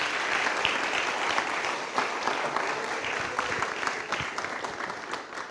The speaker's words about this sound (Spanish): Un aplauso fuerte al Señor, porque soy pentecostal ahí.